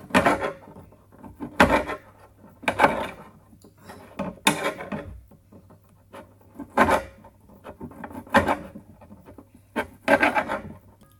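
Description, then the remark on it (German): A knife cuts chicken into small pieces on a wooden cutting board: about nine dull, scraping knocks in an uneven rhythm, fairly loud, with short pauses between and no talking. “Jetzt schneiden wir das Huhn noch klein.”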